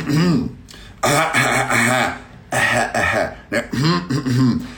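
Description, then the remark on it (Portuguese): Several loud throat-clearing bursts in a row, each a short raspy voiced rumble separated by brief pauses, with no other sounds around them. “Pigarro constante tem que ter uma causa.”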